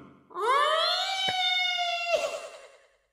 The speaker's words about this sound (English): Sound the spoiler klaxon!